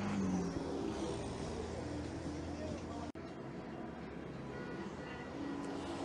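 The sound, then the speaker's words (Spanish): Steady roar of slow street traffic in the Circunvalación sector, engines rumbling and vehicles moving slowly past, a dense continuous wash of road noise with a brief dropout midway. “Esto es lo que ocurre en el cuarto día de protestas sindicales en este momento, reiteramos, eh, el paso es un poco lento, el tránsito acá en el sector de circunvalación.”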